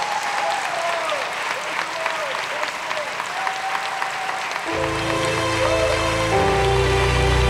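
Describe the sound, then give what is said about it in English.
An audience claps for their pastor in a steady, dense wash of applause that continues throughout; about midway, sustained organ-like chords come in underneath the clapping. “We're going to do this a few times, but if you love your pastor, would you just clap your hands and appreciate him?”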